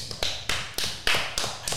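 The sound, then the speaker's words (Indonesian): A short run of hand claps, about seven sharp, evenly spaced bursts at a steady brisk rhythm, each with a quick fade. The clapping is moderately loud, with no voices over it. “Tepuk tangan dulu.”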